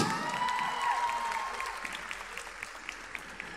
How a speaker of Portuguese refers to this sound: Tem que bater palma até elas chegarem, senão fica um vácuo.